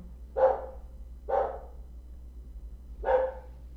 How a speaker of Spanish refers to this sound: Disculpe el perro.